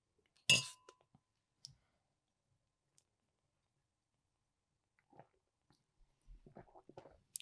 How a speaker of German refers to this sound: Aber bevor es losgeht, Jawohl. stoßen wir nochmal schnell an auf das Weingut ja. von Winning. Zum Wohl. Zum Wohl.